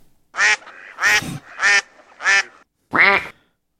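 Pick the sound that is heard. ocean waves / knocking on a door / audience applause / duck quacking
duck quacking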